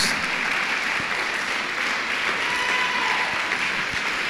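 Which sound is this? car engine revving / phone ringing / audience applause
audience applause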